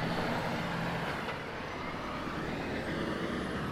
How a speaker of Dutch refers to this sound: We gaan hier oversteken. Er zijn wat vrachtwagens.